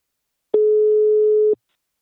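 A single telephone ringing tone sounds during an outgoing call to the company Invacare: one steady, mid-pitched electronic beep lasting about a second, clear and alone, with faint clicks at its start and end and silence around it.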